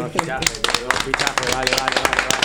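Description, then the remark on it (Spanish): A short burst of applause: sharp, irregular claps from a few hands, fairly loud, rattling along steadily while voices talk over them the whole time. “Un aplauso por ella también.”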